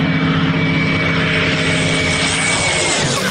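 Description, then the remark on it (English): A Spitfire propeller fighter plane's engine roars steadily and loudly, a dense droning hum with strong low harmonic tones, continuous for the whole few seconds with no voices. “That's Spitfire! One of the most famous planes of all time!”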